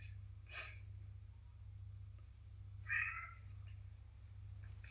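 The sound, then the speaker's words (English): A cat meows twice, a short call near the start and a longer, louder one around the middle, over a steady low hum with no talking. “Clearly, a cat feels the same way too.”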